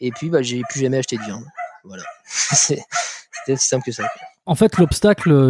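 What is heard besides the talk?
dog barking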